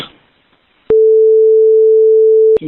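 A steady, loud electronic redaction beep tone over a 911 call recording holds at a single pitch for nearly two seconds, cutting abruptly in and out after a brief stretch of faint, muffled phone-line audio.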